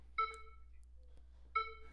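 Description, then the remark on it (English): Two steady electronic beeps played by a person, each lasting about half a second, with a pause of about a second between them. Both are clear and fairly loud over a quiet low hum, with no voices. “Hey, stop playing beeping sounds, okay?”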